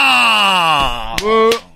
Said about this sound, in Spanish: A ver, ¿por qué le estás haciendo bu si todavía no sabes qué pedo?